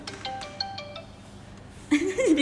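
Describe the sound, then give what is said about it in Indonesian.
A phone rings out on an outgoing call with a short series of bright electronic tones, fairly clear, before a voice starts speaking near the end. “kita kita harus kita aku telepon”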